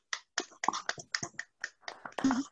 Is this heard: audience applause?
yes